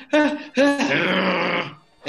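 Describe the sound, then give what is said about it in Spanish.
A person grunts with a feigned sneeze: a short throaty burst, a brief pause, then a longer strained vocal push that trails off into breathy air, with no words spoken. “Eh, puede ser un gruñido con amague de estornudo, ¿Eh?”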